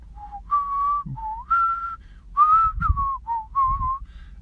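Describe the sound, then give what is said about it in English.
A person whistles a slow, sustained film-score melody alone, with smooth held notes rising and falling across about nine phrases, clear, with faint low rumble beneath. “I'm probably butchering it. And I'm like, oh, it's Jurassic Park.”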